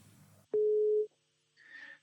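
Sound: telephone ringing tone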